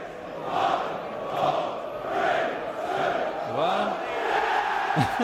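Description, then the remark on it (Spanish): Norwich away fans in a large stadium chant a collective countdown of 3, 2, 1 in loud, rhythmic bursts, pretending they have scored a goal, before breaking into a sudden roar of cheering as the rest of the stadium applauds. “Gol del Norwich hace la cuenta atrás. Y todo el resto del estadio les aplaude, por cierto.”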